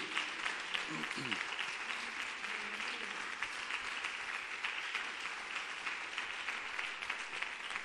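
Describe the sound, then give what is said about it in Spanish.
An audience applauds God steadily for several seconds, a dense, even wash of many hands clapping at once, with faint voices briefly rising through the noise near the start. “Y si le vas a aplaudir, apláudele bien.”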